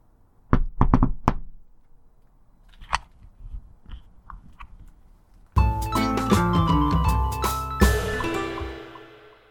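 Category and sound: household object, knocking on a door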